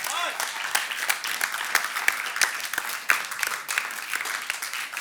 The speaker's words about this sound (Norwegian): Gi ham en applaus.